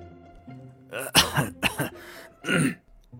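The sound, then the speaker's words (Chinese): An old man clears his throat in a few rough, gravelly bursts, three or four short harsh rasps followed by a longer, deeper hack, with quiet pauses between. “老头清了清嗓子，端着自己很了不起的样子”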